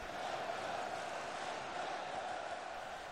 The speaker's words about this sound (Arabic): الجماهير تحتل الاستاد لا يوجد مقعد شاغر ولا يوجد شخص صامت الهتافات هادرة